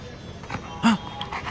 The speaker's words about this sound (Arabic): هيا اذهب هيا هيا اذهب يا له من كلب متشرد